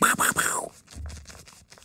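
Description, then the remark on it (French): Leather rubbing against leather: a loud creaking scrape at first, then a run of softer, rhythmic rubbing strokes that fade lower in volume. “C'était du cuir qu'on frottait ensemble”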